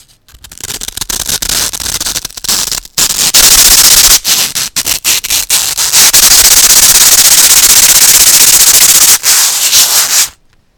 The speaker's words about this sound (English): Yeah, rub the styrofoam together. Okay, we're gonna rub the styrofoam together. But what should I do with this sandpaper? just rub those together.